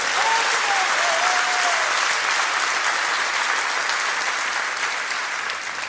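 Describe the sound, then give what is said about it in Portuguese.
Sustained applause from an audience, given as a round of applause to the Lord, a dense steady wash of many hands clapping that stays loud for several seconds and only slightly eases toward the end, with a faint vocal tone briefly audible early on. “Pode dar salva de palmas ao Senhor.”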